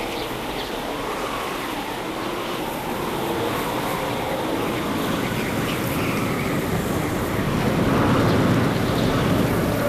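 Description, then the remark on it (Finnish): An icebreaker ship grinds through the winter sea ice of the Gulf of Bothnia, passing about 30 metres away, a steady heavy rumble thick with crackling and crunching that slowly swells louder over the whole stretch, with no voices. “Seisomme talvisen perämeren jäällä. Ohitsemme rouhii jäänmurtoja parin 30 metrin etäisyydellä.”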